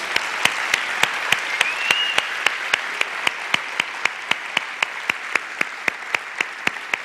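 A large audience claps in steady unison as another loud round of applause for Jesus, sharp rhythmic beats about three per second riding over a dense wash of crowd applause, loud and sustained throughout.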